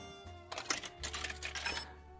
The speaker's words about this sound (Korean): 동전 바꾸는 기계. 음, 뭐라고 해야 동박이라고 해야 되나? 자, 동전 100개가 나오는 동안 오늘의 원다방 추천곡 전해드릴게요. 계속 나오네요.